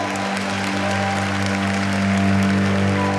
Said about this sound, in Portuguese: E agora, para terminar, eu queria saber: quem está feliz, recebeu e pode aplaudir a Deus, diga amém.